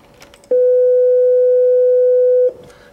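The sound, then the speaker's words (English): Two identical pure sine waves at a middle pitch, the second started a moment after the first, blending into one loud, steady hum that holds for about two seconds, then stops abruptly. No one talks. “If you take a mathematically simple sound like a sine wave, which sounds like this, and another one started a moment later, and they sound identical.”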